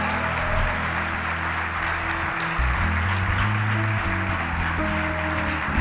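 An audience applauds and cheers for Jesus in a dense, steady wash of clapping that holds at an even loudness for about six seconds, with low sustained musical tones humming underneath.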